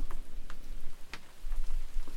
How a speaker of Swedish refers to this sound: Shit vad det börjar regna nu igen.